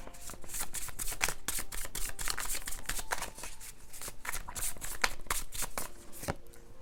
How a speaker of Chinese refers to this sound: 好，来，那让我继续抽牌。